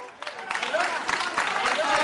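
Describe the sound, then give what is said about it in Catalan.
Steady applause as Yolanda Díaz, the Sumar candidate, steps before radio and television reporters on election day, a dense patter of many hands clapping that swells slightly and holds, with a murmur of voices mixed in underneath. “Sí, ara Yolanda Díaz està col·locant davant dels companys de les ràdios i les televisions amb aplaudiments, com podeu escoltar.”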